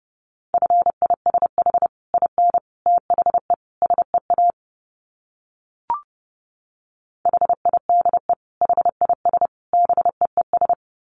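Morse code beeps at a brisk 30 words per minute: a steady mid-pitched tone keyed in rapid short and long bursts, two runs split by a pause with a single click.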